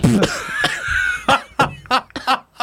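A series of harsh, hacking coughs after taking the first puff of a vape, coming in irregular bursts over a couple of seconds, with a wheezy, strained breath in between.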